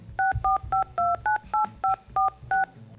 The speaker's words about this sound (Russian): Так давайте же мы э, свяжемся с ним и спросим, что он там делает и почему он там. Здесь должны быть достаточно клишированные э, звуки набора номера.